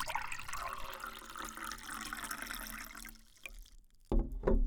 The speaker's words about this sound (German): Ich gieße mir auch noch einen heißen Tee ein und dann können wir uns ein wenig zurücklehnen und in Ruhe mal gemeinsam nachdenken.